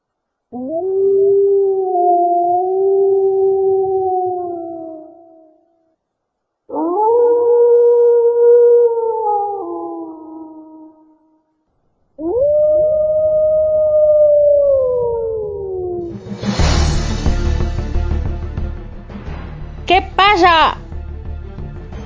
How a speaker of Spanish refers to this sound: En una ocasión, oí aullidos entre los árboles y algo chocó contra la ventana.